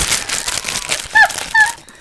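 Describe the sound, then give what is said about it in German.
Gift wrapping paper on a present crinkles and rustles in a busy burst for about a second as it is unwrapped, followed by two short, higher-pitched squeaky chirps a moment apart as the crackling fades. “Es muss zwischen uns knistern.”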